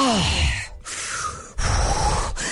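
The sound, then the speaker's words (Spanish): A voice imitates the heavy, exaggerated panting and grunting of someone doing push-ups, in a few loud, breathy, rhythmic bursts. “Oigan, absténganse de estar Jadeando.”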